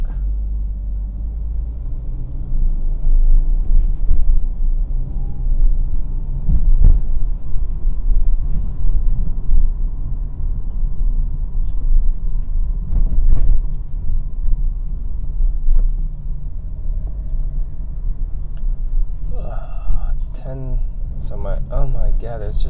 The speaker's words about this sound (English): Traffic.